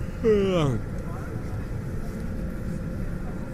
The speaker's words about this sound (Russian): Так и попал на самолет. А самолет долго летел.